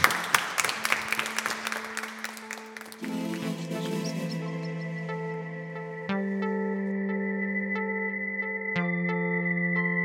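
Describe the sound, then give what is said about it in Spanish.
Audience applause crackles for about three seconds over a steady low tone, then gives way to sustained electronic chords that change in three distinct steps, with no talking. “Por favor, un aplauso, madre mía.”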